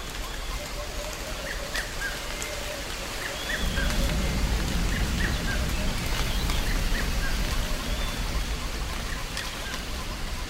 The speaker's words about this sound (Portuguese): suave chuva chega para refrescar a savana.